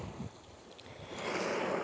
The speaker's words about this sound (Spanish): ¿Escuchas el mar? Bueno, decidí venirme a dar un chapuzón.